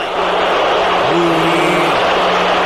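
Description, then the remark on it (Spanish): A huge crowd at the Estadio Azteca in Mexico roars at the World Cup opening ceremony with dense, continuous noise. A low, drawn-out booing of Mexican president de la Madrid swells up for about a second as he starts to speak, then sinks back into the din. “cuando empieza a hablar de la Madrid, en la inauguración, el abucheo, yo creo que nunca ha pasado en la historia en un Mundial esto, ahí va el ciudadano presidente de los Estados Unidos mexicanos.”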